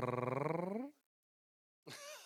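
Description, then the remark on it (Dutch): A person imitates a cat's meow: a long, wavering call that slides downward in pitch, then a pause and a second, shorter mew. Clear, with no other talking. “Dan ben je net een kat.”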